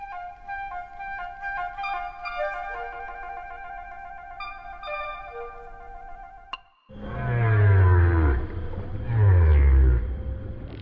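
Soft woodwind music gives way to loud whale song: deep, moaning downward sweeps in two long swells, with higher wavering cries layered above, resonant.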